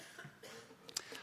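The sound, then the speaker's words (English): A short cough rises out of the quiet, a brief harsh burst from someone in the audience, with faint background noise around it. “Lots of coughs all over.”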